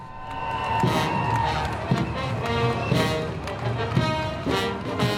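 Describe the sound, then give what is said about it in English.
A crowd at the Gay Pride parade in London, with military bands of soldiers, sailors and airmen on parade among the crowds, cheers and clamours continuously, with heavy thumps about once a second, like a drum, and sustained tones threading through the din. “Military bands on parade at last summer's Gay Pride event in London. Soldiers, sailors, and airmen happily mixing with the rainbow crowds.”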